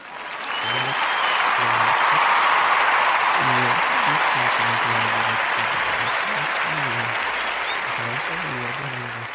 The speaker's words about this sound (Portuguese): Palmas aí.